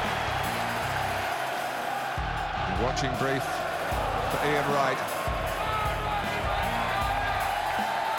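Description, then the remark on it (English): A large stadium crowd at the 1998 FA Cup final, with Arsenal playing, roars and cheers steadily throughout, a dense wash of noise with a commentator talking over it. “It must be going Arsenal's way now, the crowd.”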